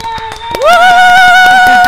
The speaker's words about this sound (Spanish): Y un aplauso para recibir a nuestra querida